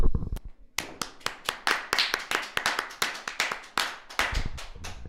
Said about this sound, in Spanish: Un aplauso para Tommy Once.